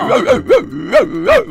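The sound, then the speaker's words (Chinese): A person imitates a dog barking with five quick, voiced woofs in a steady rhythm, each rising and falling in pitch, fairly loud and with no other sound around them. “就在这个时候，母老鼠学了一声狗叫。”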